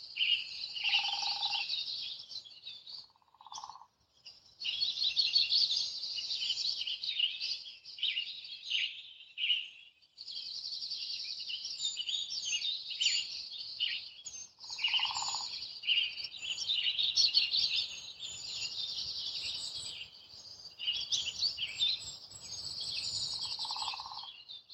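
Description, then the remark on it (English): Dark-eyed junco trills sound faint and distant, set within a steady, busy chorus of high chirping birdsong, with a few lower, softer call notes now and then and no voices. “You can still hear the trills of the juncos down below, but they're so much quieter up here.”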